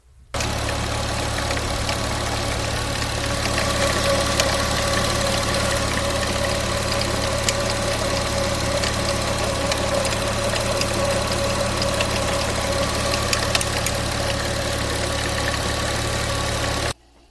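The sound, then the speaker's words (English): The engine of an old air-cooled yellow car idles steadily, with a loose metallic rattle chattering over the low hum for the whole stretch. No voices are present. “Sounds like somebody's shaking a can of spray paint in there or something, right?”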